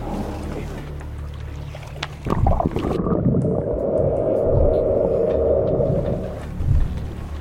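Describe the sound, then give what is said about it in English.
Offshore wind turbine pile-driving noise, recorded from a boat about 0.57 miles away: a heavy, booming impact rises out of a steady boat-engine rumble, followed by a sustained hissing roar of air and a second, softer thud near the end. “Illegal Levels Of Whale-Killing Pile-Driving Noise By Wind Industry Documented”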